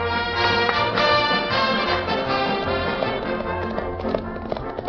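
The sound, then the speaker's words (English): Horse hooves clip-clop in a brisk, steady rhythm of sharp taps, fairly loud, set against a dense, continuous sustained backdrop that stays level throughout. “Whoa! Whoa! Oh, come on, horse. Whoa!”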